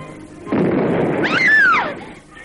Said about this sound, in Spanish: La explosión la asusta.